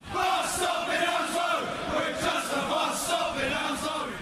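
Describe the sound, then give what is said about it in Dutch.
A large crowd of Brentford football supporters chants together in unison at full voice, a loud, sustained mass of voices with a rhythmic, sing-song swell throughout. “is dat nu een van de populairste spreekkoren bij Brentford zelf geworden”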